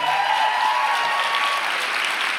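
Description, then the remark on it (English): A large audience applauds steadily for the speaker's wife, shown on side screens, the dense clapping holding at an even, loud level throughout, with a thin whistle-like cheer riding on top early on. No one speaks. “Can you guys make some noise for her?”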